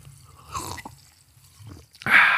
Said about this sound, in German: Ganz kurz nochmal ein bisschen Wasser. Trink ich mal kurz an meinem ASMR-Kaffee. Ich trinke jetzt einen Schluck Wasser.